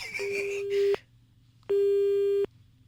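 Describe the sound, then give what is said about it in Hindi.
A phone busy tone after a woman hangs up and cuts off the call: two steady electronic beeps with a short gap between them, fairly loud and clear, with faint voice traces at the very start. “hello ये phone काट के चली गई”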